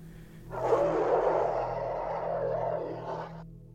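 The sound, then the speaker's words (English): A muffled, distant creature roar swells up and holds for about three seconds in a deep, shrieking tone, then cuts off, with a steady low hum underneath throughout. “It takes every ounce of willpower I can muster to move my feet, and move they did, until out in the distance I hear a muffled roar.”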